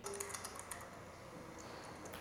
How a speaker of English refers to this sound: What I'm doing here is typing the exact same phrase in my mind, the exact same sort of finger motions. Um, but what I've done is upset the logic of the keyboard by shifting my fingers just one key to the right.